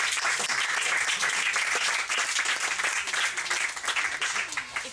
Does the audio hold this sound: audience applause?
yes